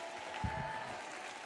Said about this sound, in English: Clap your hands and shout yes if you believe it.